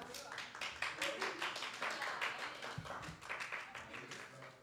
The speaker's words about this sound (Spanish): Y exactamente, muy bien. Aplausos, chicos.